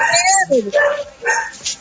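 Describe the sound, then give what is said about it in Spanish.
A dog barks several times in quick succession, short high yelping barks with a whiny, almost talking quality, fairly loud. “Hay un, hay un perro. bueno, está hablando el perro.”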